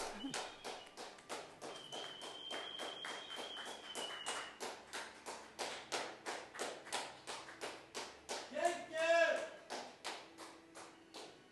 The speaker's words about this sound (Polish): też się tam przejdę i pobiję brawo.